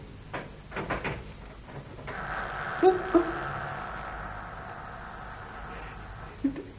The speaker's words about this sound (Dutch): Dat geluid staat niet aan. Alleen deuren die iets gemeens te verbergen hebben, knierp op die manier.